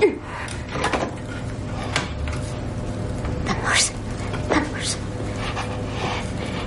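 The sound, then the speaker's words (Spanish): A knife is forced into the handle of a supermarket cold-room door to keep it shut, giving a series of sharp metallic clanks and scrapes spread over several seconds against a steady low background rumble. “Coge un cuchillo y lo inserta en la maneta de la puerta.”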